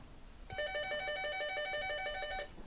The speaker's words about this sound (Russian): Оп, звонят. Надо реагировать. Немедленно.